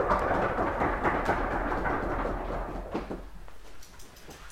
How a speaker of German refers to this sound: So, und jetzt ist der Unterricht zu Ende. Man hört es am lauten Stühle kratzen und äh, Zuschlagen von Büchern.